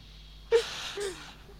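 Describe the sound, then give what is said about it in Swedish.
A person imitates a seal with two short, breathy honking barks about half a second apart, the first sharper and louder, the second softer and more drawn out, with no talking. “Man kan aldrig toppa ett säljud.”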